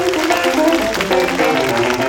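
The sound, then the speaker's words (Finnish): Audience applause, a steady wash of many hands clapping at moderate loudness throughout, with no one speaking over it. “Aplodit heille.”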